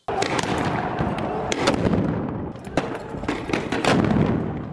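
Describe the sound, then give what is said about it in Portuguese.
Repeated sharp bangs and pops of fireworks and tear gas grenades crack out amid a dense, continuous crowd roar, with several loud blasts spaced irregularly through a chaotic street clash in the Old City of Jerusalem, as Palestinians throw stones and fireworks at Israeli police, who respond with tear gas, amid shouting and commotion. “Imagens mostram palestinos jogando pedras e fogos de artifício contra a polícia, que responde com bombas de gás lacrimogênio.”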